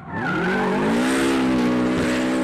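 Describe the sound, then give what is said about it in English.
Ken Block's rally car engine roars loudly, revving continuously while tires squeal through a drift, the pitch climbing and holding steady for a couple of seconds. “I can hear him coming now, and I suspect he won't be arriving in a straight line.”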